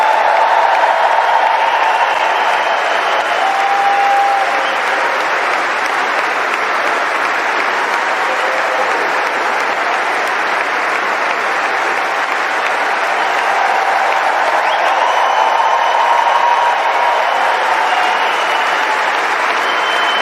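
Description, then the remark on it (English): A large stadium crowd applauds Roger Federer as he is welcomed to the Royal Box, a dense, steady roar of clapping holding the same loud level for about twenty seconds, with a few faint cheers rising briefly out of it. “I think it's just going to be two minutes of clapping.”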